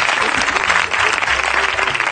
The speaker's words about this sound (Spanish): Un aplauso No, no, no pasa nada, no pasa nada. No hay que celebrar esto.